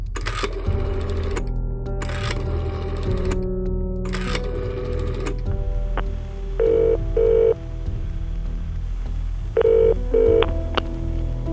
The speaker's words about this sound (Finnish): Osoitteen perusteella Liivi sai selville puhelinnumeron, johon hän hermostuneena soitti.